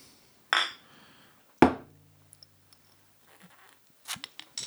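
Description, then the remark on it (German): A single solid clink of glasses knocking together in a toast, fairly loud, with a brief ringing decay, framed by soft rustling and a few small clatters afterward. “Äh, Prost, mein Lieber.”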